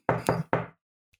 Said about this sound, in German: Ist wie dieser Klopf-Prank, wo der immer so, so ein.